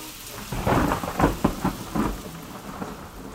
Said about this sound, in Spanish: Amaina un poco la lluvia